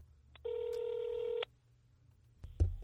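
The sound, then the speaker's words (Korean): A telephone ringback tone sounds once as a radio show calls a guest, a steady electronic buzz lasting about a second, followed by a quiet pause and a brief click as the line connects. No one speaks. “네, 그러면 오늘 이분 전화 연결 한번 해보죠.”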